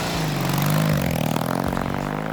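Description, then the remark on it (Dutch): Loud, steady motorcycle engine drone with shifting pitch as engines rev and rumble at the start of a 1925 road race of about 28 kilometres, finishing in Rolde, over cobblestone and sand roads. A layered mechanical roar runs throughout with no voices. “Integendeel, de motorcoureurs reden over klinkertjes en over zand.”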